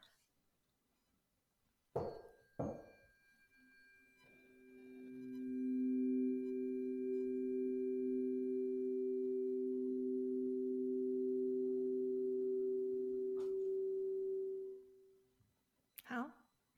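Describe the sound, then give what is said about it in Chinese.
Two sharp metallic tuning-fork strikes, then a sustained, pure, low harmonic chord tone from tuning forks of different frequencies, used in sound healing, swells in and hums steadily for about ten seconds before fading, followed by another soft strike at the end. “那我现在就先给你们听，嗯、呃，一个和音”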